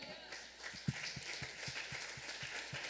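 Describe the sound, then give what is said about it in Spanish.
An audience applauds to give glory to God, a steady dense wash of clapping, while a regular low thump pulses underneath at a quick, even pace throughout. “Denle la gloria a Dios. Un aplauso.”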